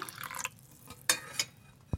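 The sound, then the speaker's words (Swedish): Hot chocolate made with grated real chocolate pours briefly into one of two cups with grated lemon zest at the bottom, a short liquid splash, followed by a few light ceramic clinks and a soft low thump. No one speaks. “skal i botten och så häller vi på den rivna chokladen.”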